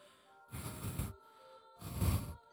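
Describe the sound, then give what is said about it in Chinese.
Two long, deep breaths follow one another, each a loud, airy rush lasting over half a second, separated by a brief pause, with no voices. “身后忽然传来很深的呼吸声”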